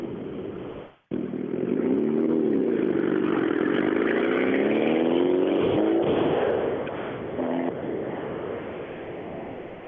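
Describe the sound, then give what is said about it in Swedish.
A car engine revs loudly, its throaty drone swelling and dipping in pitch after a brief cutout at the start, then settling lower and slightly quieter toward the end. The car is not running properly. No one speaks. “Bilen går inget. Det är något konstigt.”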